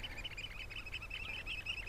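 A Eurasian oystercatcher pipes a rapid series of shrill, high calls in steady succession, fairly faint against a low background rumble, with no one talking.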